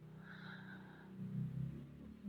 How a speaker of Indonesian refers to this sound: Aduh, suara motor tuh.